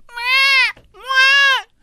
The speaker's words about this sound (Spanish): Va a empezar un niño llorando.